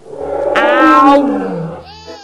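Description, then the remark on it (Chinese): A voice imitates a lion cub's roar: one drawn-out, loud, rising-then-falling growly "aow" with a bright, strained middle, followed by a brief softer trailing whine. “小狮子和爸爸一起笑着闹着，发出这样的声音：嗷。”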